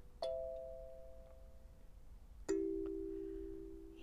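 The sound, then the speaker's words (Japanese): Two plucked kalimba notes ring out one after another, a higher tone followed by a lower one about two seconds later, each sustaining and slowly fading against quiet background hiss. “今日もカリンバの音色とオーラソーマとカバラ72の天使から、え5月11日から15日までを担当するガーディアンエンジェルさんのメッセージをお届けしてまいりたいと思います。”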